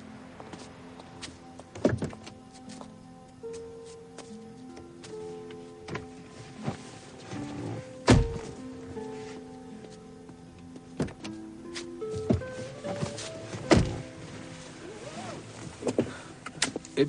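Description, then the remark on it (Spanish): Car doors thump shut a few times amid soft shuffling and rustling as two people get into a man's car, with brief mechanical whirs and faint murmured voices in the background. “Poco después, ambos se montan en el coche de él.”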